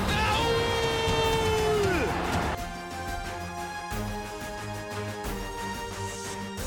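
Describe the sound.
A loud football stadium crowd at a Schalke home match against Hannover 96 in the 2. Bundesliga roars and cheers, with a falling shout rising above the din early on, then the mass of voices settles into steady, chant-like singing.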